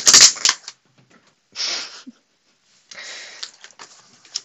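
A sharp thump and clatter as a cat jumps onto a desk, then bursts of papery sliding and scraping as notebooks shift and slide off onto a laptop, with no voices.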